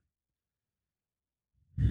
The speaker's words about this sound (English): Sorry for the heavy breathing, everyone. My nose is acting up breathing through my mouth, so I'll try to keep it under control.